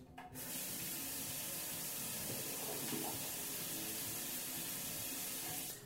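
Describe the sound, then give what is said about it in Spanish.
A water tap in a home bathroom runs steadily for several seconds, a continuous hiss and splash of flowing water that starts abruptly and cuts off at the end, with no voices. “Agradecemos, agradecemos desde lo más profundo un silencio de llave de agua de agradecer.”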